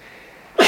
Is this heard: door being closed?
no